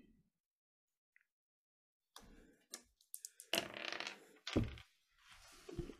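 After a couple of quiet seconds, dice are rolled for a game check, clattering and tumbling across a table in a burst of sharp clicks and rattles that settle and pick up again for several seconds; the roll comes up 13.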